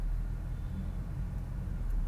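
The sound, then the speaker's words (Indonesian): Steady low rumble of road noise inside a moving car, a constant droning hum with no voices, holding at an even level throughout. “ini format kali ini lebih berasa kayak rada mellow lu nemenin gue di jalan ya di mobil”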